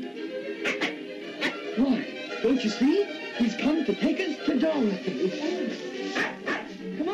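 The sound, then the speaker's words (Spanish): A small dog, Toto, Dorothy's dog from The Wizard of Oz, whimpers and yips in a rapid string of short, high whines and barks, steady throughout, with faint voices and background noise underneath. “y qué decir de Toto, el perro de Dorothy en El Mago de Oz.”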